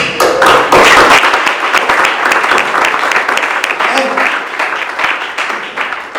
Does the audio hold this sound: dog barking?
no